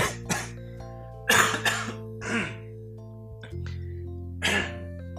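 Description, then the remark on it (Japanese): A bout of harsh coughing from someone with a cough and phlegm comes in several bursts, with throaty clearing sounds in between, and a steady low hum underneath. Nobody speaks. “ほんとね、咳も出るし、ちょっと痰も絡んでるんだよね。”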